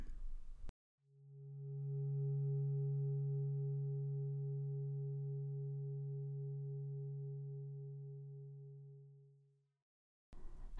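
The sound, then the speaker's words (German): A single low gong tone marking the start of a meditation rings out alone, a steady deep hum with faint higher overtones that slowly fades over about nine seconds into silence. “Die Meditation beginnt und endet mit einem Gong.”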